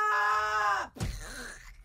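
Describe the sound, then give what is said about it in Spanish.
A voice imitates a long, sustained scream of someone falling from a balcony, holding a steady pitch for under a second before cutting off with a sudden low thud-like drop and trailing vocal noise. “¿Y para qué gritan? Ah, eso lo oyeron cuando gritaron.”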